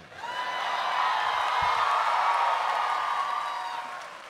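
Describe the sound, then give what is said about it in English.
A live audience cheers and applauds in a dense, sustained roar with a few high whoops, swelling quickly and then tapering off over about four seconds. “That was the sound of relief.”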